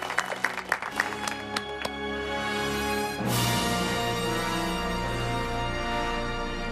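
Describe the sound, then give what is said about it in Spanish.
A few scattered, sharp claps give way to a loud, dense burst of sustained applause that continues to the end, with a steady tonal backing underneath. The applause welcomes the film expert on the RPA radio show Desayuno Coliantes on Thursday, 17 June 2021. “Brindamos un fuerte aplauso a nuestro experto en cine”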